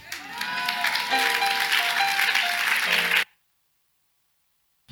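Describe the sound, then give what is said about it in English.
An audience claps together in a dense, sustained burst of applause for about three seconds, with some tonal voices or music faintly underneath, then it cuts off abruptly into silence. “Those who are not clapping, you have no life is free.”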